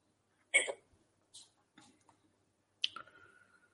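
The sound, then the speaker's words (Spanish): A few small clicks and taps, then a sharp crack as a drink can is opened, followed by a short, fading fizzing hiss. Fairly quiet, with no talking. “Yo me he abierto la lata ahora, ¿vale?”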